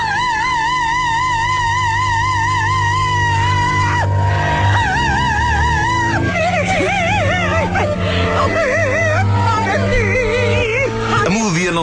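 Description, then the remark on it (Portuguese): An operatic voice from a record played backwards, with long sustained notes that swell and warble unnaturally over a steady orchestral backing, loud and continuous throughout with no talking. “Se pusermos o disco para trás,”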